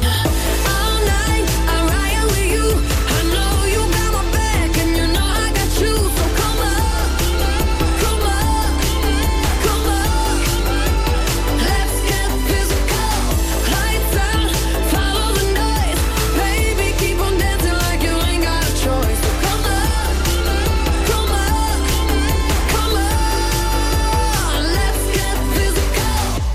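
An upbeat pop song plays on Europa FM radio, loud and continuous, with a driving beat, thumping bass and bright synths filling the whole stretch, and no talking over it.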